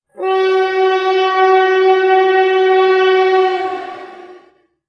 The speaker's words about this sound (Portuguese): Hoje eh, estou a caminho de Belgrado partindo de Zagreb. De comboio são aproximadamente 7 horas.